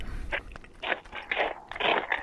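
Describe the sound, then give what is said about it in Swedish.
Wet, crunchy chewing with repeated smacking bursts, a steady irregular rhythm of mouth noises as someone eats, moderately loud with no talking. “Ja, ska bara ta en till så får jag lugna mig lite med smaskandet kanske.”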